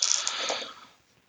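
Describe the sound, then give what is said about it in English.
A quick clatter of dice tumbling and rattling together in a tabletop game, landing on 8, 7, 7 and 3, bright clicky impacts that taper off within about a second, with no voices. “Uh, that was a great roll, but it was not a 10, so that was 8773.”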